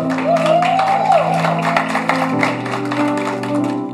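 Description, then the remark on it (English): An audience claps together in a steady, fairly loud patter of many hands, applauding a speaker's 33 years of marriage, with a sustained tonal hum and a brief rising whistle underneath. “And, and I know, and many of you clap, but the, the whole story was not a pretty story.”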